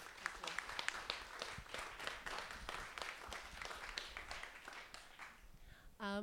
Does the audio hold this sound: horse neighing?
no